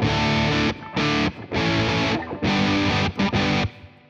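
A distorted electric guitar played through a Tube Screamer overdrive pedal plays loud, dense overdriven chords in choppy bursts with short gaps between, thick midrange saturation and no voices.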